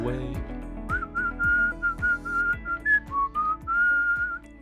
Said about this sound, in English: would you like to whistle?